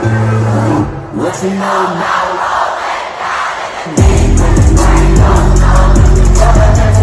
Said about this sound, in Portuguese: Ah, eu sei que parece estranho ouvir tanta gente no público, mas isto aconteceu mesmo há poucos dias num concerto